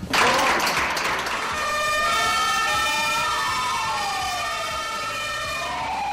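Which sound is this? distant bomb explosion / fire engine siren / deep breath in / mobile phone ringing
fire engine siren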